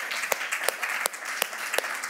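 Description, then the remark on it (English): A church audience applauds steadily for the volunteers of the 11 o'clock service, a dense wash of many hands clapping at once, with a few sharper, louder claps standing out at fairly regular intervals. “Can we give a big hand clap to our volunteers in the 11 o'clock service?”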